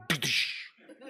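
A single sharp sneeze, fairly loud, with an abrupt burst that trails into a breathy hiss, followed by faint talking in the background.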